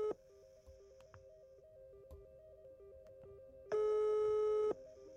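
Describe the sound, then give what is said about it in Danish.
Telephone line tones of an outgoing call to Michael Fenger, vice-chair of KL's elderly and health committee, play steadily with no voices, a low stepping tone pattern followed by a louder, buzzier sustained tone near the end, like the call waiting to connect. “Jeg har derfor ringet til Michael Fenger for at høre, om han mener, at en ny ældrelov kan gøre noget ved de mange problemer.”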